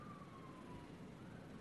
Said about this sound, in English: We have sirens going by, so just one moment,